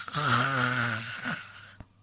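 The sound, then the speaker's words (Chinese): A voice imitates the loud, rumbling snore of a little pig with a washbasin over its head, amplifying it: one long, low, buzzing drawn-out breath, followed by a shorter snort and a brief click. “可是这回就更麻烦了，呼噜声一下子扩大了好几倍，原先是。”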